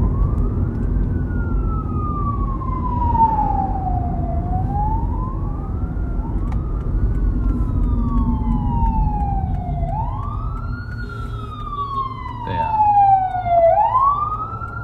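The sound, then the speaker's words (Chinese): A fire engine siren, the engine out on duty, wails in slow, repeated rising-and-falling sweeps over a steady low traffic rumble, with a second, higher siren tone overlapping toward the end. “消防车车正在执行呢”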